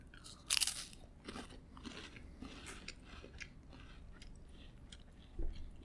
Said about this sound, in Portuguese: Esse, esse silêncio é porque eu tô mastigando uma bolacha e tomando um balde de café.